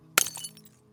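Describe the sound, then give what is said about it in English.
A small glass eyepiece lens falls and shatters on the ground with one sharp crack, followed by a brief scatter of tinkling fragments that fades within half a second. It is fairly quiet, with no voices. “You can see it spiraling down and land on the ground, the lens shattering.”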